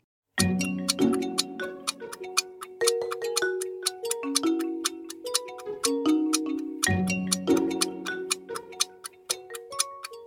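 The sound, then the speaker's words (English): A countdown clock ticks steadily and crisply for ten seconds during a quiz round, with sharp regular ticks layered over a light, repeating musical tone pattern. No one speaks. “Ten seconds are on the clock.”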